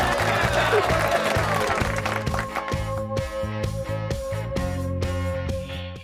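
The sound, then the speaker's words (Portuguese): A burst of crowd applause with many hands clapping at once, strongest at the start and gradually thinning, mixed over a steady musical backing with a pulsing bass. “Põe a palma,”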